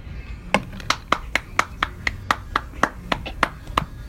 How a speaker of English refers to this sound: that was not canned applause. It was … himself clapping for himself.